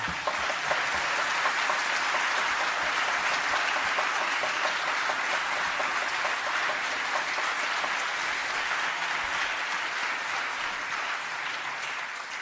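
Sustained applause from a large crowd at a Festival de Tango concert, given for the venue's technical team, a dense steady clatter of many hands clapping at an even loudness that fades only slightly toward the end, with no talking over it.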